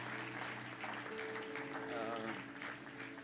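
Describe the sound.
Steady church audience applause for two people's work this year fills the whole stretch, a dense crackling wash of many hands clapping at even loudness, with a voice briefly audible beneath it and a faint low hum underneath.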